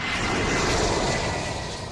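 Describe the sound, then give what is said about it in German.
A low, steady roar of an airplane on approach passing overhead on a flight route to Frankfurt Airport, Germany, loud and broad, holding constant before easing slightly toward the end, with no voices. “Der Kardiologe lebt selbst unter einer Flugroute zum Frankfurter Flughafen.”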